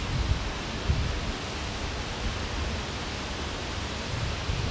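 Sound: rushing river water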